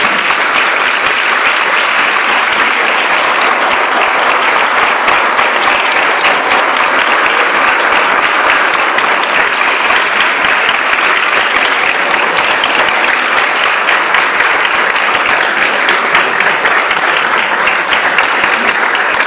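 Sustained audience applause: dense, steady clapping from many hands that stays loud and even for the whole stretch, with no voices rising above it.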